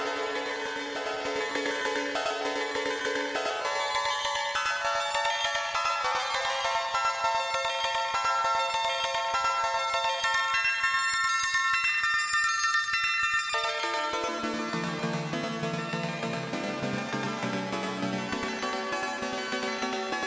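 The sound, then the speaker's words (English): Bright, buzzy synthesizer chords from a Mutable Instruments Plaits module, using its 8-4 variable square voices chord algorithm, ring out continuously with a reverberant wash, shifting through several harmonies and dropping to a lower register near the end. The playing is loud, with no talking. “And it's one of the new uh, firmware algorithms, the um, 8-4 variable square voices for chords or arpeggios, I guess is what they call it.”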